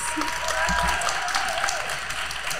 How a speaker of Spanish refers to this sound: Damos un aplauso con cariño